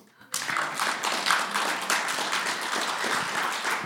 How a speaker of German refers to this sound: Gib Gott mal einen Applaus.